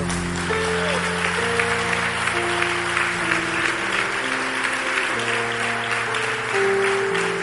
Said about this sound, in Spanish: aplauso fuerte al Señor.